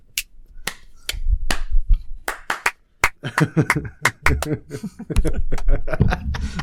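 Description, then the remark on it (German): Sharp hand claps land in a steady rhythm, starting sparse and then growing quicker and denser as laughter and voices join in beneath them. “Warte, ich, ich, ich klatsche jetzt auch nochmal. okay, und im Takt.”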